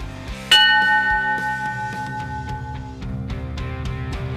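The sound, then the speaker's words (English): A single sharp bell strike rings out with a bright metallic clang and a long sustained tone, like a boxing ring bell, over steady background music with a regular beat. “That was just uh, you know you're that that bell just means that by the time this thing's over, you're gonna be a little punchy.”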